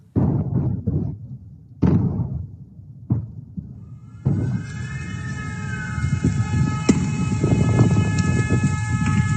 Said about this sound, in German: Sirenen, Raketenbeschuss, verängstigte Menschen. Das sind Geräusche aus der Ukraine, die Wladislaw Hereskevich in den letzten Tagen in den sozialen Netzwerken geteilt hat. Handyvideos aus seinem Heimatland.